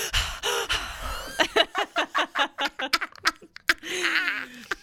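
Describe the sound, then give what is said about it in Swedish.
A man loudly imitates heavy panting with a rapid, rhythmic series of breathy huffs and gasps, ending in a drawn-out voiced breath. “Han flåsades högt.”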